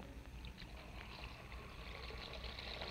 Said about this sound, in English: Come along to the bathroom and I'll show you. Now look. I'll just pour a few of these flakes into the basin and turn on the water.